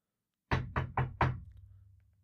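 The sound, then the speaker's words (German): A brother knocks four times on a person's wooden door in quick, even succession, firm and fairly loud, followed by a low resonant decay with no voices. “Und kurz drauf habe ich dann meinen Bruder gehört, wie er an meiner Tür klopft.”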